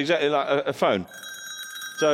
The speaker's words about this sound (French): c'est …, un pote à avec trois copains à lui, il va jouer le signe extrait du Carnaval des animaux de Camille Saint-Saëns aux cloches alpines.